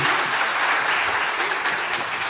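A crowd applauds steadily, a dense crackle of many hands clapping at an even, fairly loud level throughout, with no voices standing out.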